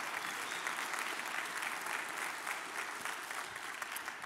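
A church audience applauds Jesus steadily for several seconds, many hands clapping in a dense, even patter that holds at moderate loudness without building or fading. No one speaks over it.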